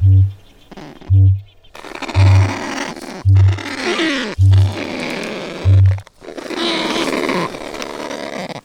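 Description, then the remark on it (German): A night call of a kakapo, or owl parrot, from New Zealand: six deep, resonant low booms repeating at a steady pace about a second apart, with rough, hissy rustling noise between and after them. “der Vogel der Woche, der Kakapo oder auch Eulenpapagei aus New Zealand.”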